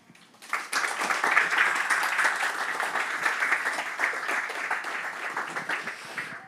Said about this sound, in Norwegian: Det var en uh, velfortjent applaus til Robindra, som sikkert satte eh, tankene i sving hos uh, mange.